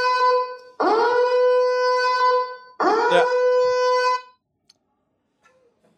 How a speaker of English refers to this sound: I'll tell you what that means. Fire alarm.